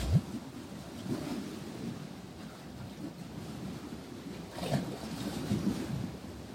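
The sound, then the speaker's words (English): A steady, low rushing of open water on the shores of Kichigami, a big lake, with soft swells rising and falling and a breezy, windswept texture throughout. “Just taking a few moments here and now to feel into the rhythms, the sounds, the energy of this great living body of water.”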